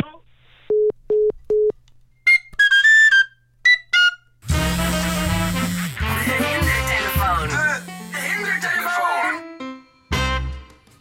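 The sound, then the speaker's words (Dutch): A few short telephone beeps, then a loud, shrill flute or whistle melody played over a phone line blasts for several seconds, distorted and harsh, before cutting off briefly and resuming. “Als een onbekend iemand zomaar zijn fluit aan je wil laten horen, niet eh, blijven hangen, gewoon ophangen.”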